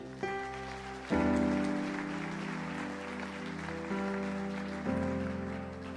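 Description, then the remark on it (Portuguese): An audience claps steadily for about six seconds, a dense wash of applause over sustained keyboard chords that shift a few times, with no one speaking. “Pode aplaudir você que ameaçou aí?”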